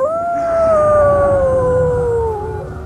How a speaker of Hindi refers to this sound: सड़क पर कुत्तों के रोने की आवाज और तेज हो गई